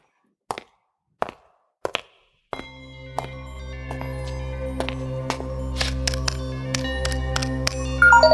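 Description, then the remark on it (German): Three sharp clicks, then an intro jingle played from a phone: sustained tones with steady percussive hits, building slightly louder toward the end. No talking. “Und das hört ihr natürlich jetzt auch, hochprofessionell vom Handy.”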